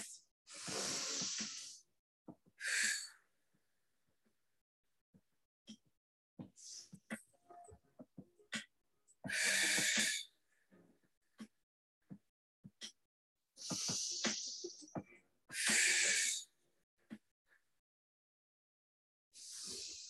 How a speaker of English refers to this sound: We're going to start to accelerate this breathing pattern just slightly one notch up, nose to mouth.